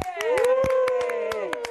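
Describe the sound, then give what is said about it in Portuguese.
Scattered, irregular clapping from a small studio audience on the TV show Saia Justa, fairly loud, with a sustained voice cheering and calling out over the claps throughout as two guests are welcomed. “Vocês que estão aqui estúdio. Vamos aplaudir hoje por voltar.”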